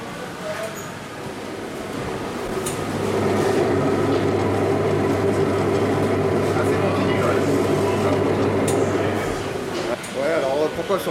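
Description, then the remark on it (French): A deli meat slicer's motor spins up after a few seconds into a steady, droning whir with a humming undertone, running fairly loud before easing off near the end. “Je peux enregistrer un bruit de trancheuse ou pas Ouais.”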